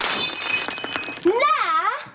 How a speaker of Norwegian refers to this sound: hun klarer å knuse vasen, til Egons store frustrasjon